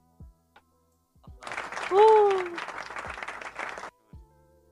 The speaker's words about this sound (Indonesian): ternyata iki anak tepuk tangan yang gini